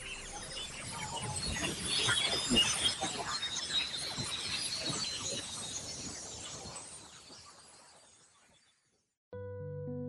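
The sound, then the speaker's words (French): A sound recorded during a polar aurora, its origin thought to lie about 70 km up: dense crackling and snapping like breaking glass over a hiss, lasting about eight seconds and fading out. After a short silence, steady musical tones begin. “L'origine du bruit se situerait à environ 70 km d'altitude.”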